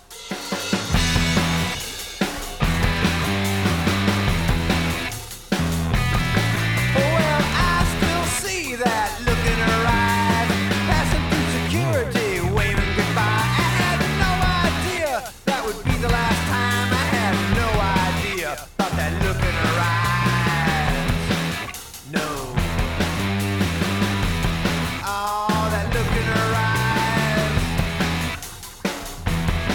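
A loud, dense rock song from a 2008 album plays continuously for about half a minute, full band sound with steady drive and a few brief drops between phrases. Nobody speaks over it.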